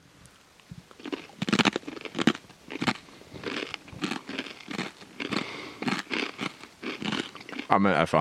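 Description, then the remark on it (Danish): Repeated crisp, dry crunches of someone eating Robot crisps topped with Rødkilde cheese in a summer residence in Aalbæk, a burst of brittle bites and chewing that keeps going, with a little talk mixed in. “Jo, vi har sat os til rette her i vores øh, lille sommerresidens her i Aalbæk, og øh, ja, lad os da prøve at smage den på en lille robotchips.”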